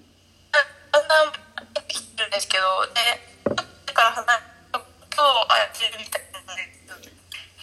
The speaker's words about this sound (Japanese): 今日電波非常に悪いわ悪いですねブツブツ切れてる、家の場所違うか 家で家の中でも電波の悪いとこであるからなあ